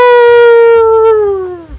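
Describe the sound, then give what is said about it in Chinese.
A rooster crows once in the distance: a single long, steady, strongly tonal call that holds its pitch and drops slightly as it fades at the end, with no voices. “远方传来鸡鸣声，咕咕咕！”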